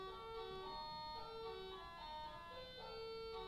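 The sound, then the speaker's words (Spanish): A doorbell at a house plays a bright, melodic electronic chime, a short tune of sustained ringing notes that repeats over a few seconds, with nobody talking. “Tocan el timbre y estas, cosas suceden.”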